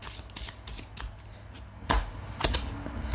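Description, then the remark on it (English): A deck of cards is shuffled with quick papery riffles and flicks, followed by a few sharper snaps as a card is pulled out, with no talking. “Let me pull a card for you now.”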